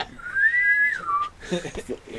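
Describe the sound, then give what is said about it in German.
A shrill boatswain's pipe call, sounded as a captain boards the ship, rises to a long, steady high note, then slides down and cuts off, followed by people talking. “Immer dann, wenn der Captain das Schiff betritt, kommt dieses Gepfeife.”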